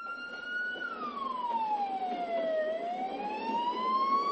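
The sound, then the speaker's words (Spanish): A police car races by at full speed on a road with its siren blaring, the wailing tone sliding steadily lower and then climbing again over a constant rumble of road noise. No one speaks. “El chico se esconde tras un muro en las vías del tren y un coche de la policía pasa por la carretera a toda velocidad.”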